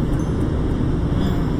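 Steady, loud engine drone of an Every kei van heard from inside the cabin while driving on the Sanriku Coastal Road, a constant low rumble with road noise and no talking.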